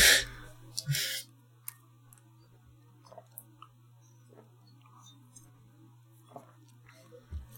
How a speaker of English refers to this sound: okay, I'll take I'll take a sip.